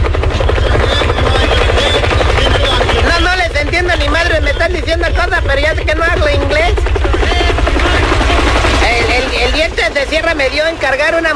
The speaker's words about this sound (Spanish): Es que el helicóptero está volando arriba.